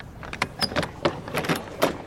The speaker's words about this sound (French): Alors que Pemberton s'apprête à goûter à nouveau son sirop, on frappe à la porte.